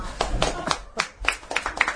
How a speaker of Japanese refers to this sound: もう、もうここで拍手お願いいたします。